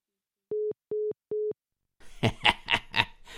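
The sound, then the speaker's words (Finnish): A truck's reversing alarm: three steady, evenly spaced, mid-pitched electronic beeps sounding alone, followed by a burst of laughter. “mitä rekka sanoo, kun se peruuttaa?”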